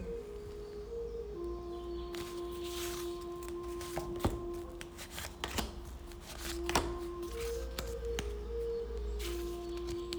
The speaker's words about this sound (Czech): Uh, když se podíváme na tu druhou, ta, děj se, já jenom, jenom míchám karty.